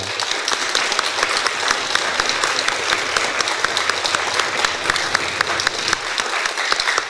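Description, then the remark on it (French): Sustained applause from an audience thanking the technical crew, a dense, steady patter of many hands clapping at even loudness for several seconds, with no voices standing out above it. “On peut les applaudir un, hein, un petit peu là.”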